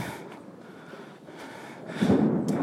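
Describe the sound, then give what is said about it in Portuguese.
A low, rolling rumble of thunder following a lightning strike, starting as a steady murmur and swelling louder for the last second or so, with no voices. “Vocês estão ouvindo o trovão? Deu um. Tipo, caiu um puta relâmpago. E deu um puta trovão agora.”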